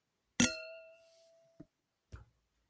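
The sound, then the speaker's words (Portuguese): Wine glasses clink once in a toast, a bright ringing chime that fades over about a second, followed by two softer, brief knocks. No one speaks. “Tintim, amiga. Tintim.”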